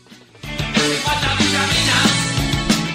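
A loud rock band song kicks in after a brief quiet moment, full and dense with driving drums and distorted guitars, playing steadily to the end with no one talking.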